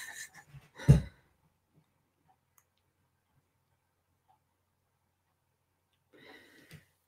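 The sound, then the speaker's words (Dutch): Breathy panting huffs into the microphone: a short cluster of quick breaths ending in one loud exhale, then a long silence before a softer breath near the end. No one speaks. “Ik wil ook wel even voor je gaan hijgen in de microfoon als je dat fijn vindt.”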